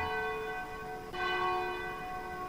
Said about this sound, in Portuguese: Agora 10 minutinhos faltando para as 10 da noite, momento que toca o sino da Catedral de Nossa Senhora de Aparecida, padroeira do Brasil.